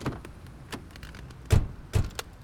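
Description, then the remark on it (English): A car door shuts with a heavy thud, then a second one closes, amid light clicks and a faint jingle of keys, with no one speaking. “Wait! Don't start the car yet.”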